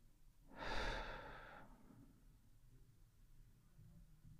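A single slow, breathy exhale through the mouth, following an inhale through the nose, as part of a deep breathing exercise. Fairly loud, lasting about a second before fading into quiet background noise.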